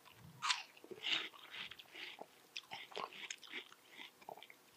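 Wet crunching as a person sitting and eating watermelon bites into it and chews, with a couple of sharp bites early on followed by a steady stream of juicy, irregular munching.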